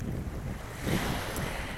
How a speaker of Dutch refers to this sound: Ehm, ik zit hier blijkbaar heel erg in de wind. Het eh, is nog behoorlijk bewolkt en er staat een windje. Dus ik hoop dat je mij wel kan, goed kan verstaan.